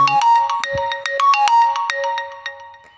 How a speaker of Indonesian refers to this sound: dan tiba-tiba ada yang telepon bentar guys